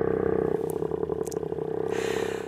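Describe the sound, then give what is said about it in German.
A humpback whale's song: a low, droning groan with a rough, pulsing buzz, steady and loud for a couple of seconds, shifting slightly in tone toward the end. No one speaks. “Wird das in Schwingungen versetzt, entsteht der Gesang der Buckelwale.”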